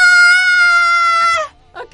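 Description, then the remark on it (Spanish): A person lets out a loud, sustained high-pitched shriek, imitating an excited fan's scream on meeting a K-pop idol, holding it for about a second and a half before it cuts off, followed by a brief vocal sound. “Yo sí gritaría ¡Ah!”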